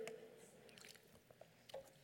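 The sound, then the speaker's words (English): Soft wet slurping and swallowing noises of a person sipping water, a few brief squishy sips and a gulp over about two seconds, with no talking. “Not only have you made them a king, I'm sorry, a little water.”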